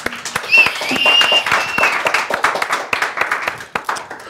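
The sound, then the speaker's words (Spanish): An audience applauds with dense, rapid clapping that stays fairly loud throughout, a few high whistles or cheers rising briefly early on before the clapping thins slightly toward the end. “No, pero no aplaudan, no mames.”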